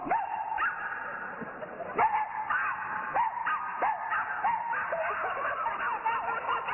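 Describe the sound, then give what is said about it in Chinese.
Two people imitate dogs with their voices, trading yelping barks and whiny, whimpering yips in quick, overlapping bursts, fairly loud and continuous throughout. “什么俩狗啊？那是我和他，我们俩人。”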